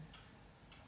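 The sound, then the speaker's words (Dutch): A clock ticks steadily, two crisp, light clicks about half a second apart, quiet against a faint hush with no voices. “Ik dacht zo straks al, moeten de klok even stilzetten.”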